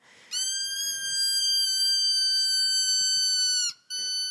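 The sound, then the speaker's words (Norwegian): A squeaky dog toy that is also a piece of jewelry lets out a long, shrill, whistle-like squeal for about three seconds, then breaks off briefly before squeaking again, loud with no talking. “Det er et smykke som også er en hundeleke.”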